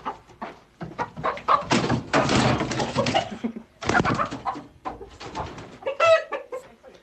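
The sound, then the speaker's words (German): Chickens cluck steadily in a henhouse, several birds overlapping in busy, uneven bursts, with a few louder squawks near the end and no talking. “Frag die Hühner mal, was die dazu sagen.”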